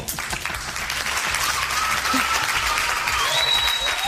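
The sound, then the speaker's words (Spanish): An audience applauds steadily for about four seconds, a dense, even patter of many hands clapping at a fairly loud, constant level, with faint cheering or whistles mixed in, welcoming a journalist from the Spanish-language newsroom of Radio France Internationale. “Aplaudimos como se merece”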